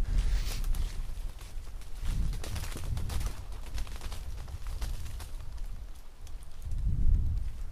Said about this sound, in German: Das waren wieder Vögel, die haben eine ganze Weile gebraucht, um in der Panik des Fliehens aus dem Baum rauszukommen.